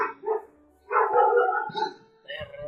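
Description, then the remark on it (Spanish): A female dog barks in a few sharp bursts: two quick barks, then a longer, drawn-out volley, and a final bark near the end. “Eh, y si la perra está.”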